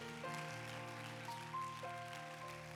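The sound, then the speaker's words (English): A church audience applauds to welcome a guest preacher, with steady, dense clapping that sounds like a wash of rain, while sustained organ-like chords hold underneath. Nobody speaks. “Would you put your hands together and give him a great big God bless you?”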